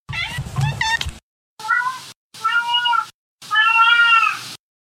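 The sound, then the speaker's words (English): A cat, Winston, meows loud and clear in a run of about four calls separated by brief pauses, the last one drawn out and wavering, with no talking. “sometimes my cat Winston joins me.”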